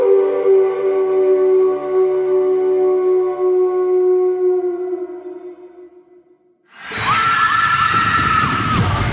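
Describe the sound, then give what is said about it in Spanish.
A single long, drawn-out wolf howl with a slowly falling pitch, loud and clear for several seconds before fading, then a burst of harsh, dense noise abruptly takes over. “Esta es la visión que habitó hace cientos de años en la mente de un lobo que se detuvo en la cima de un monte a contemplar la luna, que aulló con todas sus fuerzas el aullido de un profeta.”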